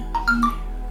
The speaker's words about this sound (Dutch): nou, dat was mijn telefoon even tussendoor, moet kunnen.